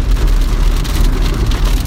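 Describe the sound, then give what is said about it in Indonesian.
Steady rain falls outside, a constant dense patter with a low rumble underneath, fairly loud and unbroken, with no voices present. “hujan beb maaf nih kalau banyak noise”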